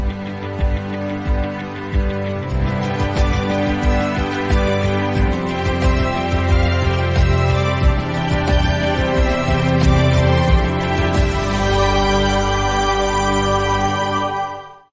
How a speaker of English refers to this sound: Yeah, that was inspiring music, man.